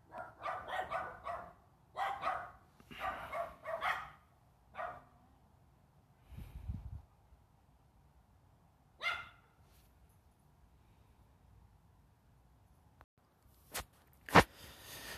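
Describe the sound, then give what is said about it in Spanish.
A dog barks in a quick series of sharp barks, pauses, then lets out a few more scattered barks, with a low rumble and a couple of loud clicks near the end. “Es lo que pasa cuando grabas en vivo. Ah, se te puede salir un perrito, esto, el otro, etc.”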